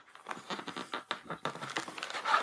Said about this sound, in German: blättert herum.